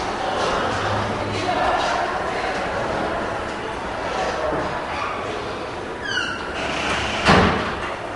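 Against a steady wash of background noise, a door is closed: it creaks briefly on its hinges and then shuts with one solid thud.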